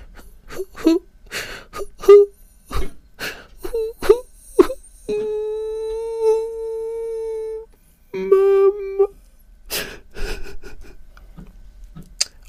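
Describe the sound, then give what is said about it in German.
A voice imitates a child's pitiful crying as heard in a waiting room: choppy sobbing gasps, then a long sustained wail around the middle, a second shorter wail, and more whimpering sobs trailing off. “Es Ja, natürlich immer schwierig, wenn man selber nicht im Zustand ist, aber ein mitleiderregendes Weinen, Schluchzen, Jammern, so, ne?”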